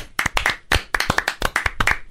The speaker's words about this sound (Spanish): Un aplauso. Bravo.